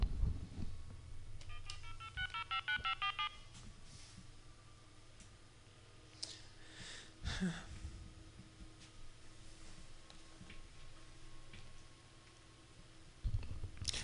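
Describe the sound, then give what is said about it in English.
A telephone being dialed on a live radio show to call back a caller who hung up: a quick run of about eight short touch-tone beeps at steady pace, followed by a low background hum and a couple of faint clicks, with no talking. “I'm going to call her back, Pearl.”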